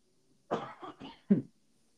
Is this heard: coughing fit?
yes